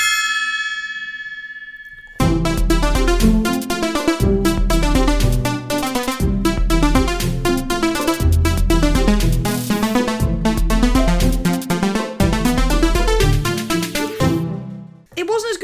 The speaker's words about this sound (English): Time to start the episode with the Parks and Rec Watch Gong.